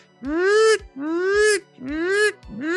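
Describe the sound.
A voice loudly imitates a walkie-talkie radio sound with three strained, groan-like bursts, each rising slightly in pitch and separated by short pauses.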